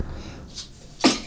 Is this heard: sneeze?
yes